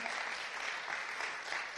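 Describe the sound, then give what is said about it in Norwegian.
A crowd claps steadily for some of the people who will share God's word this autumn, a dense continuous patter of many hands at even loudness throughout, with no voices standing out. “La oss gi en applaus til noen av de som skal være med og dele Guds ord i eh, høst.”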